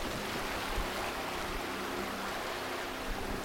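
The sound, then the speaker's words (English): A motorboat passing by on a river, its low engine drone under a steady wash of churning water, holding a fairly constant level throughout with no voices. “We've got a motorboat going by right now.”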